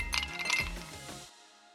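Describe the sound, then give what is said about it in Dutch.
Two quick glass clinks, a fraction of a second apart, each leaving a bright ringing tone that fades out over about a second. Fairly soft, with no talking. “Schenk 30 ml Pauli's Ginger Raw Original in een mooi glas.”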